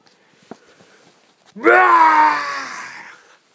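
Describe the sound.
A person voices a loud, drawn-out lion's roar for a lion in a story set in a library, one sustained rough bellow of nearly two seconds that swells quickly and slowly fades, after a moment of near silence.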